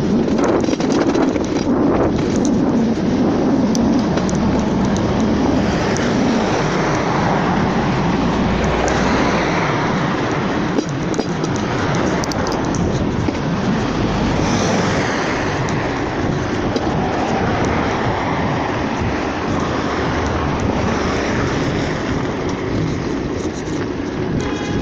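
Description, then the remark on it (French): A loud, continuous roar of passing car traffic with gusty wind buffeting the microphone, swelling slightly now and then as vehicles go by; no one speaks. “Je ne peux pas enlever les voitures”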